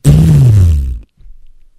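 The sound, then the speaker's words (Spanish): A loud fart sound effect, standing for a fart let out in a barber's chair: one buzzy, low blast lasting about a second that slides down in pitch, cuts off, then trails into a few faint sputtering pops. “Y ahí estaban, y estaba yo y que me hecho un pedote, güey.”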